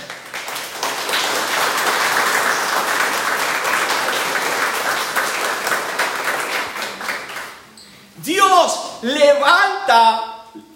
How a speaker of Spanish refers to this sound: Yo no sé usted, pero yo le daré un aplauso al Señor por eso.